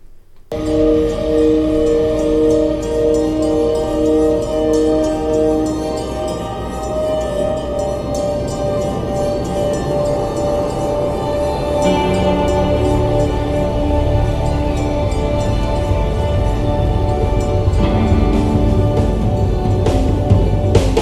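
An instrumental song intro plays loudly and steadily, with long sustained chords over a busy rhythmic backing that thickens about halfway through; no one sings or speaks.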